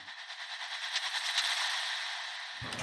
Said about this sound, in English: I guess it might it might be from like a like a horror impact thing.